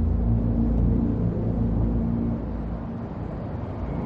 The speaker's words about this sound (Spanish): De día, un coche circula por la calle de un barrio residencial. El reverendo conduce.